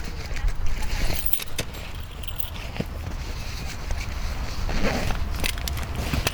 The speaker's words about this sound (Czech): Takže si musím vzít klíčky.